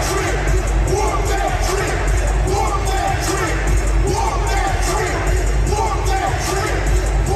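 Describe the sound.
A huge arena crowd at FedEx Forum in Memphis chants along with the Memphis Grizzlies' theme song blasting over the speakers during a game against the Golden State Warriors, a dense, steady roar of voices with rhythmic pulses running through it for the whole stretch.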